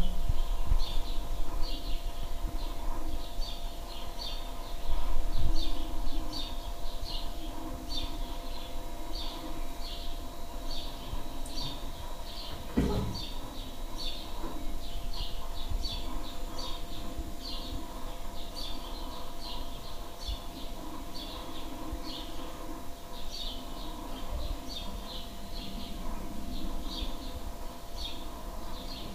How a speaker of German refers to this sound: Genau, und jetzt könnt ihr die Vögel hören. Ich halte jetzt mal direkt aufs Fenster.